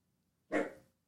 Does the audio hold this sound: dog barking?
yes